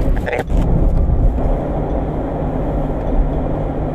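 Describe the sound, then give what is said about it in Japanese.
A steady low rumble of road noise fills the cabin of a moving car on the way to work, with a brief knock or shift near the start before the drone settles into an even, continuous hum. “今ねあの仕事場に行く車の中なんですけれども”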